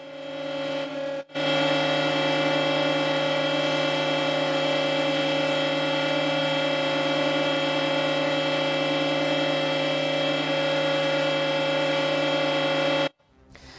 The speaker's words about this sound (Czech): Severokorejci jeho památku uctili v pravé poledne tříminutovým tichem, které doprovázely zvuky sirén.